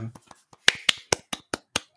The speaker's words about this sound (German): Applaudieren wir uns jetzt selbst.